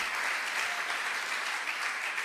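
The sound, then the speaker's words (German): Steady crowd applause given for God, a dense wash of many hands clapping at an even, sustained loudness throughout, with no voices standing out. “Lass uns für das Gott einen Applaus geben.”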